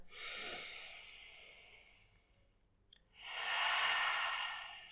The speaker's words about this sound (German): Atmet mit uns noch einmal.